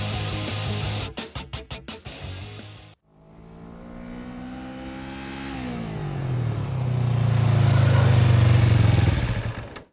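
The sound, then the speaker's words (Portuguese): A motorcycle engine revs loud, first in short choppy blips, then a sustained roar that climbs in pitch and holds high before cutting off abruptly. “Desliguem seus motores e você aí estaciona essa porra direito.”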